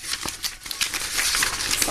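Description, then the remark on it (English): Crisp rustling of papers being shuffled and handled, a steady run of dry crinkly scratches and small flicks lasting a couple of seconds, with no one speaking. “Rustling really. papers.”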